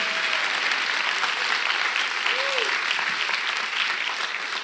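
Steady, dense applause from a large audience fills the whole stretch at an even loudness, a continuous wash of clapping with a brief faint tonal sweep rising and falling partway through.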